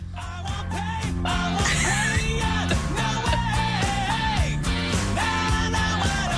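A 1998 pop-punk song recording plays loud and steady, with a sung vocal line riding over dense guitars, bass and driving drums, no talking over it.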